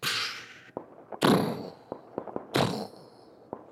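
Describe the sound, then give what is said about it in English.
A voice imitates a fireworks grand finale: three hissing, breathy whooshes, each followed by scattered sharp pops and crackles made with the mouth, fairly loud, with no words. “Yeah, like no, I'm really good with fireworks sounds.”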